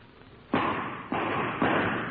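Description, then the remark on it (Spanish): Three gunshots fire in quick succession, about half a second apart, each a sharp, muffled bang followed by a ringing tail that carries into the next shot. No one speaks. “¿No oíste unos tiros ahorita?”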